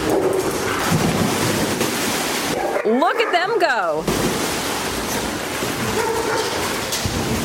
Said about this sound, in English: And finally, for you today, winter is almost here, but there's still time for a pool party. It's a pool party for dogs.